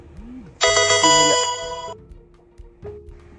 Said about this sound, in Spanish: Pausa por el gran, el gran sonido de la notificación.